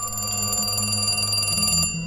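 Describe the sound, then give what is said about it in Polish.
An old telephone bell rings loud in one continuous metallic trill, rattling rapidly for nearly two seconds before cutting off abruptly. No one speaks. “Chwilę po tym, jak służąca opuściła kamienicę, Zbigniew odebrał telefon.”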